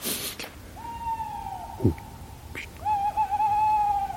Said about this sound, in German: Das klang ein bisschen nach Käuzchen, aber.